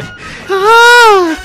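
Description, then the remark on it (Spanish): A person voices a single drawn-out scream, imitating the shriek of a radish being pulled from the ground: loud and tonal, arching up in pitch and sliding back down over about a second. “Es el, es el grito ¡No, de un por favor!”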